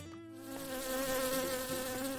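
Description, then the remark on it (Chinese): A large wasp buzzes steadily as it flies around a woman's face, a droning hum with a bright, raspy edge that swells slightly in loudness and wavers a little in pitch as it hovers, with no voices. “这时，不知从哪儿飞来的一只大马蜂，在南姨的脸周围嗡嗡的飞来飞去。”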